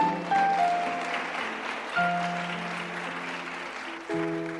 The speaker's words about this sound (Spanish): Alaba al Señor si puedes. Dale fuerte aplauso a Jesús, hermano.